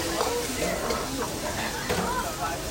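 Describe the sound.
Steady sizzling of eggs, wood ear mushrooms and other vegetables being stir-fried in a large iron wok at Gifuya, a popular neighbourhood Chinese restaurant, with intermittent scraping and tossing sounds and faint voices murmuring in the background.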